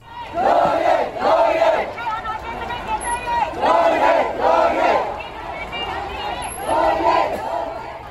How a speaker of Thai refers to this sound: เป็นเสียงตะโกนเรียกว่าขอให้ปล่อยตัวองซานซูจีนะคะ ร่วมกันเรียกชื่อซูจีซูจีหนึ่งในข้อเรียกร้องค่ะว่าต้องปล่อยตัวองซานสุจี